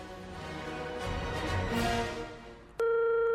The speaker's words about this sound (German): Es klingelt.